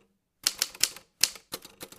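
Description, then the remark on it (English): Sharp, clacking keystrokes on a borrowed typewriter as poems are transcribed, striking in quick bursts of three or four with a brief pause between clusters, crisp with no voices present. “began the long work of transcribing these poems onto a borrowed typewriter.”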